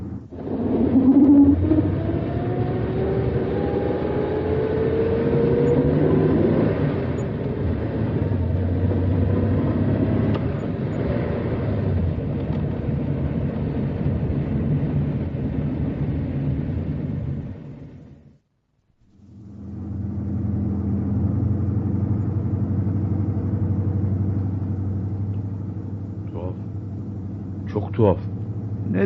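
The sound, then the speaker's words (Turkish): A vehicle engine revs up with a rising whine and then drones steadily as it drives, a loud rumble that cuts out briefly before the low engine noise resumes. “Hadi babacığım duracak vakit değil. Bastalım gaza.”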